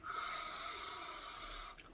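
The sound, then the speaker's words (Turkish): A single long, deep breath drawn in, a steady airy rush lasting almost two seconds before it stops. No talking. “Ee, öfkelenmeden önce, biriyle kavga etmeden önce derin bir nefes alıp şöyle bir”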